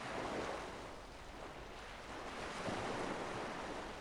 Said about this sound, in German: seichter Wellengang in der südlichen Ägäis. Vor der Insel Seriphos holt ein Fischer namens Dictus seine Netze ein.